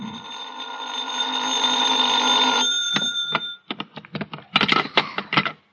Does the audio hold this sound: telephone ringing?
yes